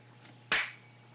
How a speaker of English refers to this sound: Does that help? Uh, no, but uh, the clapping hasn't helped so far, so I decided to Ignore keep it. the tradition alive, but not end it or not use it for anything useful.